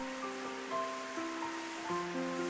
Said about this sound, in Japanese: 雨はますます強くなっていった